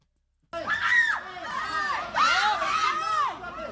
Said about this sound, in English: That's not what's happening here. No, no, no. They're fighting over a bag of bog rolls, a bag of toilet paper.